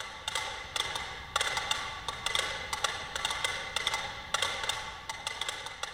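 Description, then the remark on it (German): A dense, overlapping patter of about a hundred mechanical metronomes ticking in a Ligeti stage piece, sharp and clicky, forming an irregular clatter with occasional stronger clusters of taps as they gradually run down and only single ones keep ticking; no voices. “Ähm, aber das ist ein sehr großer Ausatemvorgang, bis dann die Metronome nach und nach auslaufen und einzelne nur noch ticken und dann hört man ganz genau, wie sie gegengleich laufen.”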